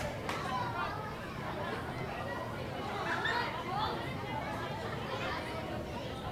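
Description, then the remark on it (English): Steady crowd chatter from a crowd of 3,783 at a night baseball game in the bottom of the eighth inning, a dense wash of overlapping voices and babble with no single voice standing out, holding an even, moderate loudness throughout. “Nice crowd here tonight, 3,783.”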